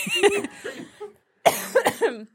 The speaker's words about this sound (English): making myself cough over here.